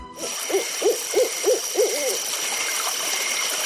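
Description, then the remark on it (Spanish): An owl hoots in a steady series of about six rounded calls, evenly spaced, over a constant background hiss of crickets or flowing water, then the hooting stops and only the ambience remains; ambient sound in a forest-themed bar on La Rambla in Barcelona, with waterfalls, ponds and lakes. “El sonido ambiente es el canto de los grillos o de los búhos.”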